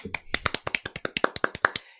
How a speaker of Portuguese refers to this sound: Palmas para Teresita.